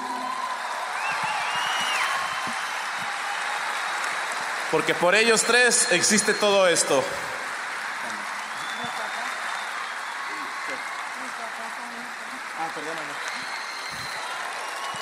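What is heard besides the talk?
audience applause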